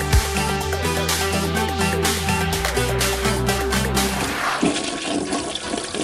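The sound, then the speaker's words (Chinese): A loud toilet flush sound effect played before a morning news segment: a steady, warbling rush of swirling water for about four seconds, then a hissing, bubbly drain that trails off. No one speaks. “上大条的这一部分呢，哈，那马桶的这个音效呢”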